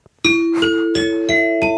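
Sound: ding-dong-dang correct answer chime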